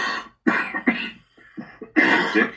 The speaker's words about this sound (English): could you try not to cough on the